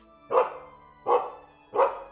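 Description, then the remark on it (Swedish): A dog named Glaze, running up curiously to see who has arrived, barks three times in a steady rhythm, each sharp, yappy bark spaced under a second apart, clear with no talking. “Och Samantha, du kan ju höra hur Glaze kommer springande och gläfsande lite, eh, springer fram för att kolla nyfiket vem den är och sen så skäller den till när den ser dig.”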